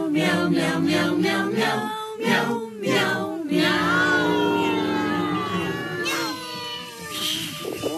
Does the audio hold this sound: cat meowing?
yes